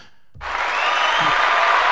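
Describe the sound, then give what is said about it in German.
A burst of recorded crowd applause, played from a soundboard at the press of a button, starts abruptly after a brief quiet moment, then continues as steady, dense clapping at a fairly loud level with no voices over it. “Ja, hast du Applaus bei dir drauf? Dann mach mal Applaus.”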